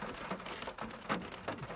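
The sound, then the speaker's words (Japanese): Steady rain falls at Takamatsuyama in a soft, continuous hiss, with scattered louder patters of drops hitting a surface, and no one speaks. “でもこう、まあ、雨でも集まってくる人たちがいるんで”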